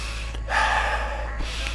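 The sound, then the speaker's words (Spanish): A single deep breath drawn in through the mouth, airy, lasting about a second over a steady low background hum in a waiting room, with no one speaking. “Cierra los ojos y respira.”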